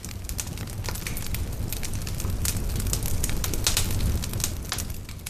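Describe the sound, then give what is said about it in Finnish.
A campfire crackles steadily outdoors, with people sitting around it in a semicircle, dense irregular pops and snaps over a low rumbling roar, continuous, with no voices. “Osa virittelee telttoja tai puuhailee iltapalaa kauempana ja osa istuskelee nuotiolla jonkinlaisessa puoliympyrässä.”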